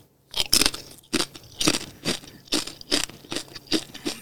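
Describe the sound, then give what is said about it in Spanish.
Crunchy chewing of a spicy avocado snack, a steady series of about nine sharp, crackly bites roughly every half second, fairly loud, with no talking. “Voy a probar el pique este. Este, este es de aguacate.”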